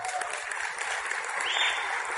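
An audience claps together in a steady, dense wash of applause that holds an even loudness for a couple of seconds, with no voices rising above it.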